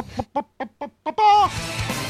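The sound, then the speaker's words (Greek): A rubber chicken toy squeaks five times in quick, short bursts, then lets out one long, strained squawk, loud with a raspy edge as Ramon bites it. “Μισό λεπτάκι γιατί ο Ραμόν δαγκώνει το κοτόπουλο που κάνει ή ή, Πάλι καλά που κάνει ή ή,”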